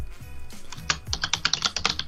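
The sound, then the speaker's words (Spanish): Rapid clicking of keys on a computer keyboard, a quick irregular run of sharp taps over a low background hum. “Deja estar tecleando, por favor.”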